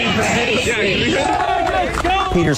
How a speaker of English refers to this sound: handles the protesters well, and you look pretty calm while they're screaming at you.